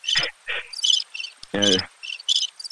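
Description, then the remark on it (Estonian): Birds chirp in a quick run of bright, high twittering calls, several short bursts with one fuller, lower-pitched call in the middle, and no talking. “noh, anname linnud, linnud natuke sädistavad”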